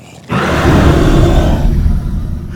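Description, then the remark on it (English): A monster's loud, shattering roar bursts in suddenly and sustains for about two seconds, deep and rumbling with a rough, growling texture before trailing off slightly. “There is another shattering roar.”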